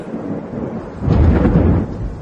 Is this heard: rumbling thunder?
yes